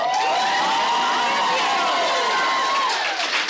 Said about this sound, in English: Uh, round of applause if you've been to the Stanley Hotel.